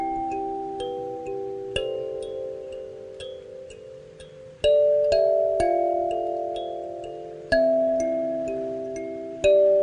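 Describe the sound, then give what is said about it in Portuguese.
Bright, bell-like metal tines of a kalimba, a hand thumb piano, are struck with the fingertips and ring out in a slow melody. Each note is struck sharply and left to sustain and decay, with several notes overlapping; clear, no voices. “ele é um pianinho chamado kalimba, vocês já viram? É um pianinho de mão.”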